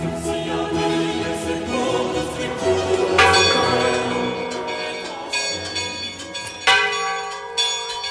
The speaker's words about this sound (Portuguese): Neste episódio, vamos compreender o que dizem os toques dos sinos.